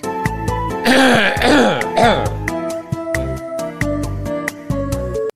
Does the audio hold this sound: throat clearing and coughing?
yes